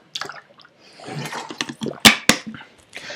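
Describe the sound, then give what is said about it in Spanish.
Someone takes a drink of water for a sore throat, with soft sloshing and handling noises followed by a couple of sharp gulping clicks. No one speaks. “Permítanme, voy a tomar agua un segundo, ya se me tocó la garganta.”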